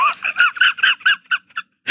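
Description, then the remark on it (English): A chicken clucks in a quick, steady run of about eight or nine short, nasal calls, fairly loud, trailing off before a brief rustling burst at the end. “If that chicken in the beginning of this film made you question everything about your life, what did the rest of this film do to you?”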